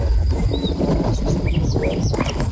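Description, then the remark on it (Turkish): Steady wind rumbles and buffets against the microphone without a break, while several small birds chirp and tweet faintly in the background. “Şu an rüzgar sesi duyuyorum.”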